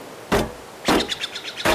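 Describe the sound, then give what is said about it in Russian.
A branch strikes a metal kettle three times at an uneven pace, each loud hit leaving a short hollow metallic ring, with the middle blow rattling longest. “Давай мы попробуем также отогнать эту гиену Бери ветку и стучи по мне изо всех сил”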